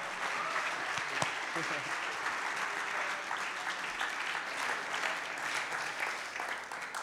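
Sustained applause from an audience, a dense, steady wash of clapping filling the whole seven seconds with a few sharper claps standing out, with no talk over it.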